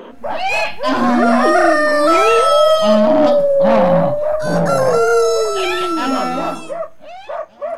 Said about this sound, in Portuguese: O burro zurrava, o cachorro latia, o gato miava e o galo cantava. E ó, ó, au, au, au, miau, cocoricó!